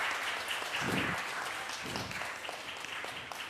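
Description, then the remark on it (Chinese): Sustained applause from a church audience welcoming first-time newcomers, a dense steady patter of many hands clapping at a fairly even level throughout, with no voices standing out. “啊，请左右邻居跟他一起握手，我们用最热烈的掌声来欢迎他们。”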